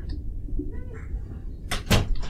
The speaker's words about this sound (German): Warte, mach mal die Tür zu